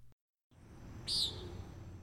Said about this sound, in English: The common nighthawk.